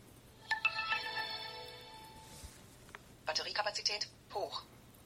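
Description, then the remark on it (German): An electronic device with a plastic housing is switched on by sliding the switch on its left side down and releasing it: a short electronic chime of steady layered tones plays for about two seconds, then after a brief pause a few quick clipped bursts follow, resembling a synthetic voice, all clear. “Und ich werde das Gerät nun einschalten, damit ihr ein wenig praktische Erfahrung sammeln könnt.”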